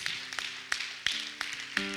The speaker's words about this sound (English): Somebody clap like it's going to work.